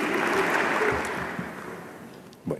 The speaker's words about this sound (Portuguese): Aplausos e emoção no momento da despedida.